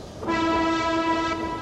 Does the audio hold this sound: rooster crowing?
no